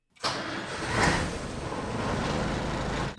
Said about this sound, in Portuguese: Eu quis saber ainda qual é a sensação que ela sente quando bate a chave no caminhão e escuta este som.